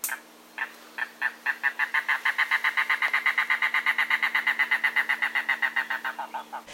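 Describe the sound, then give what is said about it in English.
A mangrove cuckoo on Saddlebunch Key in the Florida Keys, recorded on a cell phone in 2019, gives a long, rapid series of harsh, nasal guttural notes, about thirty in a steady rhythm, slowing and dropping in pitch at the end, with no talking. “On Saddlebunch Key in 2019, Russ and I watched a mangrove cuckoo who was so cooperative that Russ held up my cell phone to get a recording while I took photos.”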